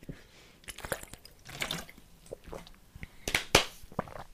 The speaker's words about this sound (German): Erstmal ausstrecken, erstmal einen Schluck Wasser trinken.